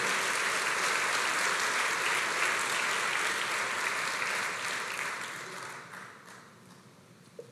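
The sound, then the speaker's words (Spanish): A church audience applauds the Lord in a dense, sustained wash of clapping that holds steady, then gradually thins and fades toward the end, with a lone final clap. “Démosle fuerte las palmas al Señor”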